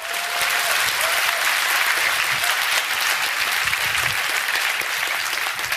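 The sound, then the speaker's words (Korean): A church audience at a worship service breaks into sustained, steady applause at the preacher's call to clap, a dense wash of many hands clapping at even loudness for several seconds, with no voices rising above it. “박수 치세요.”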